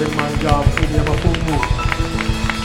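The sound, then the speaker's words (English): An audience claps hands in worship in a fast, steady rhythm, the sharp claps loud over a bed of sustained voices or music. “Clap your hands for the King of Kings.”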